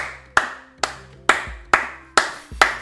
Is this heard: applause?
yes